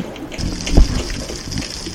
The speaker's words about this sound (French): Attention, plongée sous-marine.